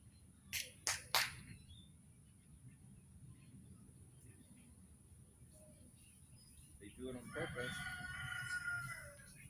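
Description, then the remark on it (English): A few sharp clicks sound early on, then near the end a rooster lets out a long, strained crow, fairly loud, over a low steady background rumble. “Those roosters sound like they're gonna die.”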